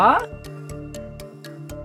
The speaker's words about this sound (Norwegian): Um, du ble stressa av den klokka òg? Ja, den er tikk-takk.